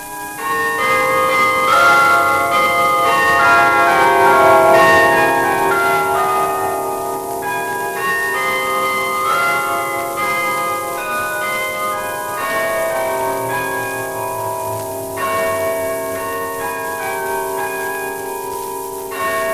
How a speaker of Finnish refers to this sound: Ranskasta tuo meille tervehdyksen Pariisin Saint Odillin sodan jälkeen tarkoituksensa vihitty katedraali, jonka 22 kelloa hoitaa Ranskan ainoa naispuolinen soittaja puunäppäimistön avulla. Tässä yksi hänen soittimensa lukemattomista sävelmistä.